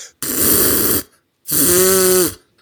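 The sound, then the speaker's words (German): A person imitates the loud nose-clearing snorts heard every morning on getting up: two forceful bursts, the first a harsh noisy blast and the second a longer one with a honking, trumpet-like tone. “Du hörst immer so einen Elefanten ab, ab, ab, da an, wenn ich aufstehe, so richtig.”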